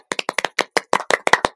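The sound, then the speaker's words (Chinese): A short burst of hand clapping for a curtain call, about a dozen quick, sharp claps in an uneven rhythm, moderately loud with no voices over it. “那要要配配掌声，等一下啊。”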